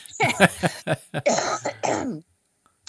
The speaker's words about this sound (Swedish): Ursäkta mig, ja. nu blir jag så till mig att jag fick upp slemhosta här.